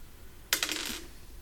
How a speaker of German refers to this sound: Ich würfel jetzt ein D4.